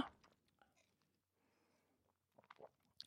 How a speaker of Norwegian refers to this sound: Hvis du hørte irriterende svelgelyd fra meg nå, send inn Ja. i kommentarfeltene Send der du liker å kom kommentere ting.